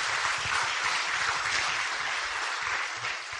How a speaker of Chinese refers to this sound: 好，来给自己掌声鼓励。